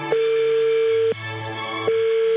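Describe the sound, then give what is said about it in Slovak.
A steady electronic telephone ringback tone sounds for about a second, pauses briefly, then starts again, clear and fairly loud over a faint low hum, with no one talking, as a Europa 2 radio presenter dials a man's girlfriend's phone number. “držme si palce, sme v tom spolu, idem vytáčať číslo tvojej frajerky.”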